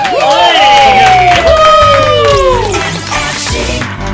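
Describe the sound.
An audience applauds loudly and steadily, mixed with cheering voices and several sliding, high-pitched whistles that rise and fall over the crowd's clapping.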